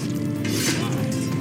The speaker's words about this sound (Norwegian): Menn som trekker sverd for å slåss.